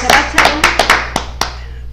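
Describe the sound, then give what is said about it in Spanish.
A brief patter of welcoming applause: a handful of sharp, uneven hand claps that thin out and stop after about a second and a half, leaving a low steady hum. “Les recibimos con un fuerte aplauso.”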